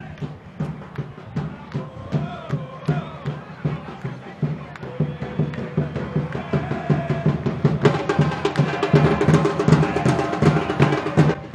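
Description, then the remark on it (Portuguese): Guarani supporters, the Guaragola, pound out a steady, rapid drum rhythm in the stands of the Farião at the Guarani–Tombense match of the 2019 Campeonato Mineiro on 16 March 2019, while the crowd chants along, the singing swelling louder and brighter in the last few seconds. “E aqui você já ouve a Guaragola, a torcida do Guarani.”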